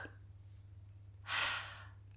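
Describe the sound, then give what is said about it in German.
A single deep, breathy exhale whooshes out for about half a second as a person takes a deep breath, over a faint steady low hum, with no talking. “Atmen wir mal alle tief durch.”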